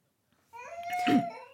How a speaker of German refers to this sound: Äh, für jeden, der es gerade im Hintergrund hört, mein Kind ist ein bisschen quengelig, aber äh, darf er auch sein.